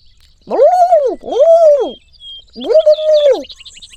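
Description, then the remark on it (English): A person imitates a red-breasted pigeon's mating call: three drawn-out, arching whooping hoots with a pause before the third, loud, with faint chirps in the background. “That's what we, uh, in the business, call a uh, red breasted pigeon mating call.”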